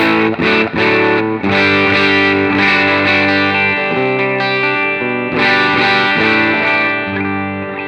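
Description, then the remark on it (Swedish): Electric guitar played through its pickups, ringing chords with a driven, slightly distorted tone and a chorus-like shimmer, strummed in a steady rhythm with sustained notes filling the gaps, no voices. “den här gitarren som jag spelar på nu har haft då i säkert tio år riktiga paffar”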